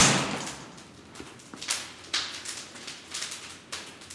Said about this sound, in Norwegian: Så det alltid var åtte rammer inne i ovnen. Man har lukket døra, sånn at du ikke får kaldt inni.